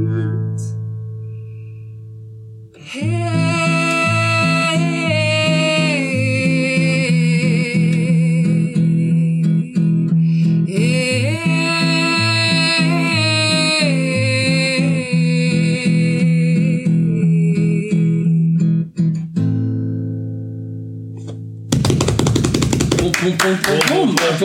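A live performance of a brand-new Dutch-language song: a sung melody over steady, rhythmic instrumental backing with sustained chords, running continuously until a loud burst of applause breaks in at the end.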